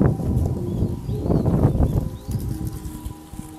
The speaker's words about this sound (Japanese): 風ごめんなさい